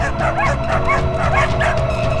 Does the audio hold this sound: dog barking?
yes